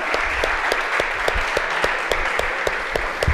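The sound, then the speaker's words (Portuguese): An audience claps for Jesus in worship, a steady, dense wash of many hands with sharper individual claps punctuating it at a regular rhythm, loud and sustained throughout with no voices audible. “Aplauda Jesus, aplauda o Senhor, aplauda Ele.”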